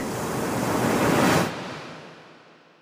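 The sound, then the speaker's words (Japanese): A loud surge of rough ocean surf builds into a full, roaring crash, then breaks off and recedes into a softer hiss of churning water, as violent waves wreck a ship at sea. No voices are heard. “そうしたら、ひどい波が起こってね。船が壊れてしまって、私の入れられていた箱も割れてしまいました。”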